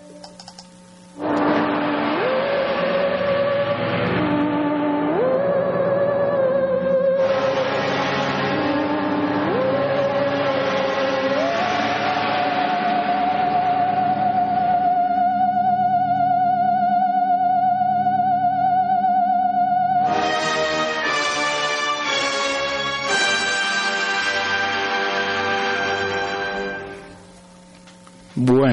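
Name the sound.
film soundtrack music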